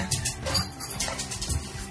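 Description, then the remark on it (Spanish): A small pet dog barks defensively, letting out a quick series of sharp, high yaps, with no voices over it. “Es, mi perrito y está defendiendo.”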